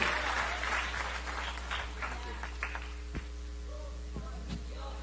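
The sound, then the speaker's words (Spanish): Audience applause, a dense burst of many hands clapping that gradually thins out to a few scattered claps, with a steady low hum underneath. “Entonces atreven a dar un aplauso más fuerte al caballero de la cruz.”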